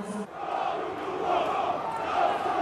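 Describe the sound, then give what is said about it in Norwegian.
A football crowd at an SK Brann match shouts angry chants calling for the coach to go, along with jeers at the players and whistling, a dense, steady roar of many voices that swells slightly toward the end, with no single voice standing out. “Rop om at treneren må gå.”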